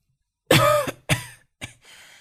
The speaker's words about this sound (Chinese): 爷爷咳嗽几声